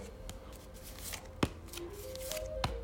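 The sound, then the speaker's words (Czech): Tarot cards are shuffled with a soft, papery rustle, then two crisp snaps as cards are drawn and laid down; the Justice card is drawn. The handling is quiet and nobody speaks. “Dobře, padá karta spravedlnost, on s tím to nemá problém.”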